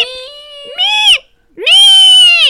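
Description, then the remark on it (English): A voice imitates the squeak of a desert rain frog, a frog of Namibia: two shrill, drawn-out squeaky cries, the second louder and longer after a brief pause, with no other sound around them. “There are some really cool amphibians in the Namibian desert or in Namibia, uh, like the desert rain frog. You know, oh, is that the frog. is that the one that is that the one that goes?”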